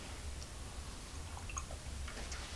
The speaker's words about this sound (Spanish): Después de este sorbito sin una gota de azúcar.